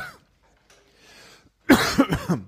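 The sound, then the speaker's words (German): After a near-silent pause, a person coughs loudly, a short burst of three harsh, raspy coughs in quick succession. “Jetzt habe ich mich so gefreut, dass ich husten muss.”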